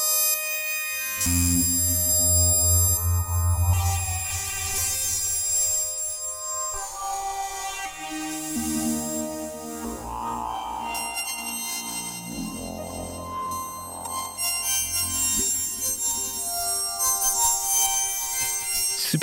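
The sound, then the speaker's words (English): Shimmering, metallic modular synth tones smeared into a dense wash by a Pico DSP effect module in granular delay mode, with bell-like pings and sustained drones layered over a low rumbling bass, continuous with no talking. “I think I'm in granular delay mode on the Pico DSP.”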